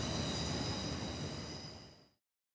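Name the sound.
S-Bahn commuter train passing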